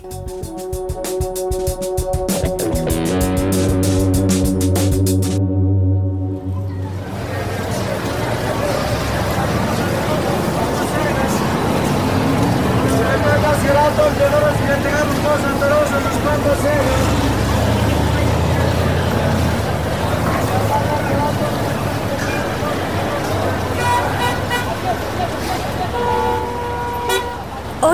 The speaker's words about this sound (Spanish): nos encontramos en Timisa, una UPZ de la octava localidad de Bogotá. Por doquier encontramos personas hablando, escuchando, gritando.